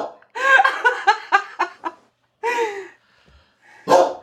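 A dog barks in a quick burst of several yaps, then lets out two more separate barks after short pauses, loud with no talking.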